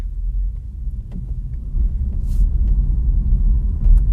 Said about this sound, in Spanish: Ahora en realidad lo que más se escucha es el ruido de la rodadura del coche.